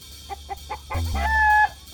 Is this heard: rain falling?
no